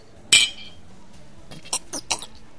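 A single bright clink of mulled wine mugs knocking together in a toast at a Christmas market, ringing briefly, followed by a few softer shuffling and clattering sounds. No one speaks.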